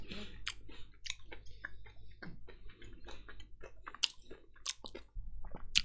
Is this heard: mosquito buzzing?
no